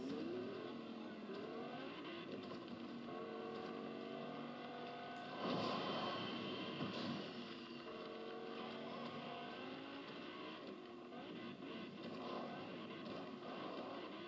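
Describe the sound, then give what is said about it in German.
A car engine drones steadily as the vehicle drives, its pitch rising and falling with shifts in speed, with a brief louder surge midway through. “Guck mal, wie gut ich Auto fahren kann.”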